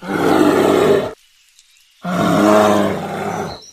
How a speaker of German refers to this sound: Und dabei hoffentlich nicht auf Grizzlies treffen oder auf Schwarzbären, denn davon gibt es in den Wäldern von British Columbia doch sehr viele und wirklich angenehmer als der Grizzly vorhin klingen die auch nicht.